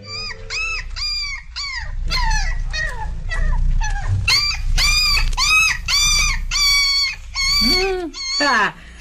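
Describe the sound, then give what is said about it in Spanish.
A dog barks loudly as it approaches, in a rapid, continuous series of sharp, yelping barks for several seconds, with a low rumbling background underneath. “Ahí viene otra vez el perro de Callín.”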